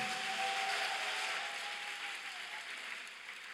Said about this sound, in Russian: Давайте дадим Господу большие аплодисменты.